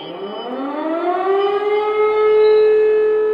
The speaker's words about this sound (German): außer dieser Sirene ist schon wieder nichts geschehen.